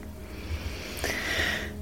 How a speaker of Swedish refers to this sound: Andas in.